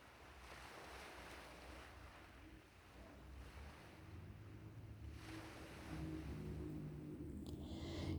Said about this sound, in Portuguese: E à medida que você observa as ondas brilhantes batendo na praia, logo à sua frente, você oferece a essas águas transformadoras qualquer problema que você esteja vivenciando ultimamente.